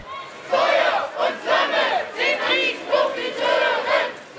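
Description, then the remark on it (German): A crowd of a few hundred demonstrators in Garmisch at the opening of the G7 summit, protesting against the G7, shouting together in loud, rhythmic bursts, with overlapping voices rising and falling in repeated chant-like waves. “Ein paar Kilometer weiter unten in Garmisch haben sich derweil zum Auftakt des Gipfels weit weniger Demonstranten versammelt als erwartet.”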